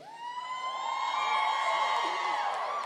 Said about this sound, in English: I just know I just heard a lot of screaming girls in their 20s okay. yelling.